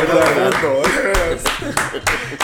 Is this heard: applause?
yes